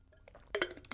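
A few bright glassy clinks and taps, with two louder knocks in the middle of the second, like a glass being handled while someone takes a drink of water. No one speaks.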